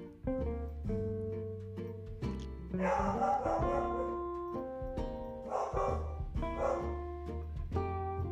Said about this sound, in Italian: E capita anche questo, un abbaio di un cane.